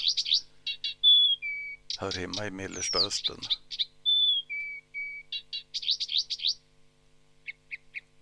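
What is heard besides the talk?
blyth's reed warbler song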